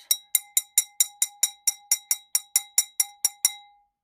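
A rapid, steady run of bright glassy clinks from jiggling glass, about fifteen evenly spaced strikes, clear with a ringing tone, the last one left to fade out. No voices.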